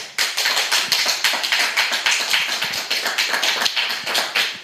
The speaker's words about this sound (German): Es ist ja live heute aus dem KS Computer Club, das heißt, ihr könnt vorbeikommen. Und das heißt auch, wir haben ein Publikum hier. Mal gucken, wie laut der Applaus gibt, den es machen kann.